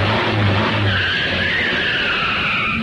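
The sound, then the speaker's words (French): Car tires screech loudly as a vehicle brakes hard, a sustained high squeal over a low engine rumble that holds for about three seconds, with no voices. “Accélérer doucement, maintenir une vitesse constante, passer les vitesses en souplesse et éviter les freinages brutaux.”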